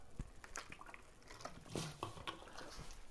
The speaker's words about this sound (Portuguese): Primeiro, deixa-me beber água.